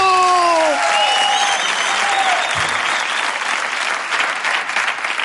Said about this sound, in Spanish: Reciban con un fuerte aplauso a Tomás García. ¡No me entero del aplauso!